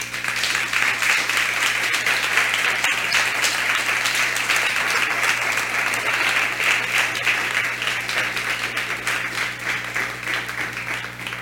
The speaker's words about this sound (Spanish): ¿Por qué no les levantamos otro fuerte aplauso?